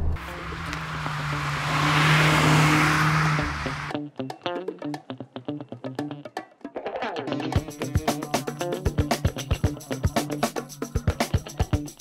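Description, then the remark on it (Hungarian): A 2021 Mazda MX-5 RF G184 sports car engine idling hums steadily with heavy road rumble at first, then gives way to a quieter stretch with a pulsing, rhythmic pattern of sharp sounds over a low drone. “Mazda MX-5 RF G184 (2021)”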